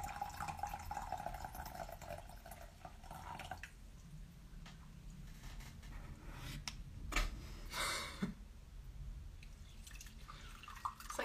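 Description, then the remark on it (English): Coffee pours steadily into a cup for a few seconds, then after a quiet stretch come a couple of short sips and slurps of the coffee, with no talking. “What's in this coffee?”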